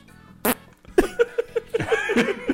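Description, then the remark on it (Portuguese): A voice imitates a pug's fart: a sharp breathy burst, then a sputtering run of short, buzzy, rising pulses that tumble into one another for about two seconds. “A gente ficou meia hora no risada do peido da cachorra, cara.”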